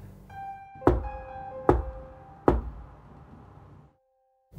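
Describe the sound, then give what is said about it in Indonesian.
Three evenly spaced, rhythmic knocks on a wooden surface from inside a wardrobe in a room at night, sharp and fairly loud, the last knock the loudest, ringing against a low humming background with steady tones that fade to silence after the last knock. “Sri itu dengar ada suara ketukan yang aneh dari dalam lemarinya”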